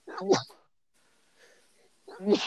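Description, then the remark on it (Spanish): A pair of sharp sneezes about two seconds apart, each a quick voiced burst with a hissy edge, separated by near silence and faint background murmur. “Salud.”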